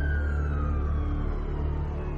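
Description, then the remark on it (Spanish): An ambulance siren, as a man is loaded in and taken to hospital, holds a single steady tone that slowly slides downward, heard over a constant low engine rumble at moderate volume, with no one speaking. “Carlos Arevalo fue cargado en una ambulancia y trasladado al hospital Guillermo Rauso”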